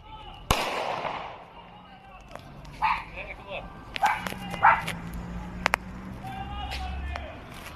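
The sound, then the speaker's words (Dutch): Police fire handguns at a crossbow shooter in Almelo: a loud, sharp gunshot cracks out near the start, followed by several more scattered bangs and pops at irregular intervals against a noisy background. “Eh, kruisboogschutter die eh, overigens geen knal maakt, want dat zijn politiekogels.”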